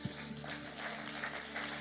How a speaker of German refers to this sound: Applaus